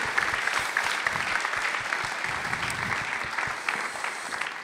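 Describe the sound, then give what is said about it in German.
Sustained applause from the ICF München church audience for three people who shared their story, a dense steady wash of many hands clapping at an even loudness throughout, with no voices standing out above it. “Ist nochmal euer Applaus.”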